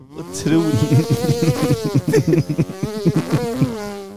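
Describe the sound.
A voice mimics the new leaf blower at Busta Hugg with a steady, nasal buzzing drone that wavers and pulses for several seconds, fairly loud, with no words spoken.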